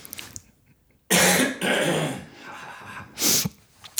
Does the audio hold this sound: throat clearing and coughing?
yes